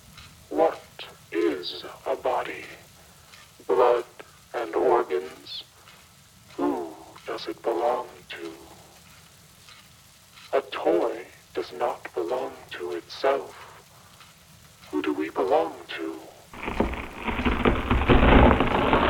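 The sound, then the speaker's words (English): A voice speaks over a quiet, low rumble, then steady rain comes in near the end, a dense, even hiss that fills the last couple of seconds. “It begins to rain in our darkness.”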